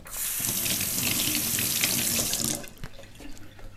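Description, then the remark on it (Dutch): Hands are rinsed under a running tap: a steady, loud hiss of water for about two and a half seconds, then it shuts off, leaving a few soft drips and small splashes. “En eh, ik ga nu even mijn handen spoelen.”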